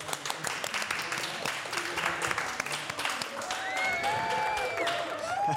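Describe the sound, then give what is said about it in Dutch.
A burst of canned applause triggered by a sound-effect button plays, dense clapping that swells steadily and holds at a loud level, with a few whoops and cheers rising above it toward the end. “Applaus voor de...”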